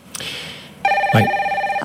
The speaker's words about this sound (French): C'est l'heure du téléphone. Sébastien Barthélémy nous appelle.